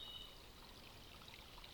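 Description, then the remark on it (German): A forest stream flows steadily, its broad watery rush continuous, with a few faint bird chirps peeking through. No voices are present. “während wir dem Bachlauf und dem Vogelgezwitscher lauschen”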